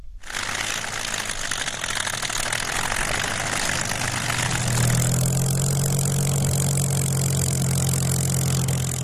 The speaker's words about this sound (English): The so called hardest day was remembered with a special flight of Spitfires and Hurricanes from Biggin Hill in Kent.